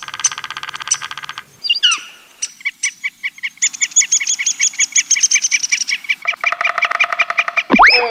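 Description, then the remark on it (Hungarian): A woodpecker calling: bright, squeaky chirps and rapid repeated trilling notes in quick bursts, loud and clear, ending with a sharp rising squeal. No one speaks. “A műsorszám harkály megjelenítést tartalmazott.”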